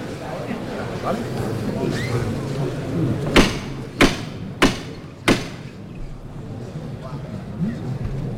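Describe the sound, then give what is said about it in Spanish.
Four sharp metallic hammer-knocker strikes ring out in a steady, slightly quickening rhythm, clear, signalling the second lift of a procession float, over a constant murmur of a crowd. “se acerca Juan Mayal Martillo y vamos a escuchar esta segunda levantada”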